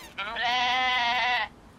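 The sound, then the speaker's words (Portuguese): A male actor imitates a goat as a joke, letting out one long, quavering bleat that lasts just over a second. The sound is fairly loud, and it is heard on its own without talking. “Ele ainda não fazia barulho de cabra quando fazia piada.”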